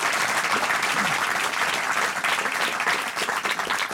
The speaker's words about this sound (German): Deswegen kriegen Sie jetzt auch einen ganzheitlichen Applaus.